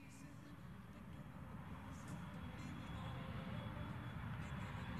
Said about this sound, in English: Sounds like a plane to me, man.